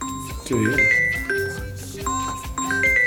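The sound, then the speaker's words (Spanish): A phone ringtone plays a short, bright melodic phrase that repeats about three or four times, fairly loud, with no one talking over it. “Eh, sí, nos suena el teléfono, tenemos que sí.”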